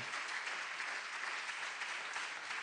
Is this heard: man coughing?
no